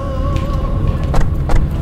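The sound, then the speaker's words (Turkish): An old car idles with a low, steady engine drone and a faint whine, parked among expensive cars in a small square under the midday sun. Two quick latch clicks near the end as a door opens and people get out. No one speaks. “pahalı arabaların arasında güç bela yer bularak indik benim külüstürden.”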